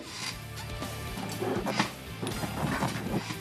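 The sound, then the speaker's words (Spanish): A bedroom chair creaks and squeaks repeatedly as it is rocked and shifted, a scraping, uneven run of strained wooden and metal noises with no one speaking. “como sabéis, la silla de mi habitación, vamos, está para arrastre, Mirad, mirad.”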